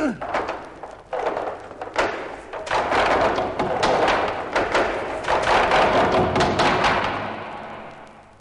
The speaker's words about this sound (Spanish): Cogeremos los troncos uno a uno y los despeñaremos. ¡Oh, ah, buena madera para quemar! Tenemos ya el primero.